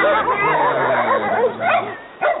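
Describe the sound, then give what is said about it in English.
Several dogs bark and yelp over one another in a busy, overlapping stretch, loud, then a brief lull before one last sharp bark, during a walk with dogs. “Poor Bucky, all those dogs”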